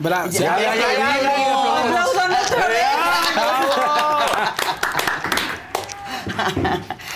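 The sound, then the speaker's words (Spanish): A crowd claps steadily for several seconds for a woman who has been told she does not have cancer, with excited voices cheering and chattering throughout. The applause thins toward the end as a few claps trail off under the voices. “Entonces, eso, muy el, bien, que está sana y salva, aplaudan.”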